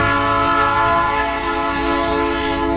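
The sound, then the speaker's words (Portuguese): A loud passing train near the railway track blares its horn in one steady, unbroken blast with a rich, buzzing chord, with the low rumble of the train underneath and no one speaking. “Passei aqui perto do trilho do trem, o trem vai me atrapalhar no podcast, mas vamos seguir.”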